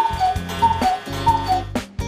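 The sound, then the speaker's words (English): A Black Forest cuckoo clock ticks in a steady, even tick-tock rhythm, with a faint ringing tone under each beat and no voices. “people who like to ride on motorcycles, even though there exist roller skates, bicycles, and even Black Forest cuckoo clocks.”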